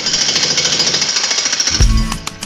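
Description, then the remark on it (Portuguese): A loud jackhammer of the kind used to drill asphalt and break stone pounds in rapid, steady bursts, its harsh hammering rattle continuous, ending with a heavy low thud as the tool strikes and stops. “Só para efeito de comparação, aquelas britadeiras usadas para perfurar asfalto e quebrar pedras produzem, em média, um ruído de 100 decibéis.”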